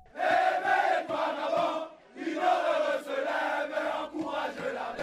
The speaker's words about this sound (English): This was the sound of people celebrating in the streets of Gabon in Central Africa this week when the President Ali Bongo was ousted in a military coup.